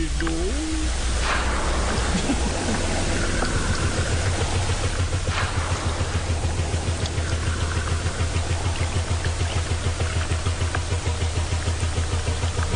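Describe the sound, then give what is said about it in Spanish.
A blue whale call heard as a deep, steady low-frequency drone that rumbles continuously, with a hissing wash of underwater noise on top and a brief higher tonal sweep near the start. “Pues si quieren, escuchemos un poquito de este canto de la ballena azul.”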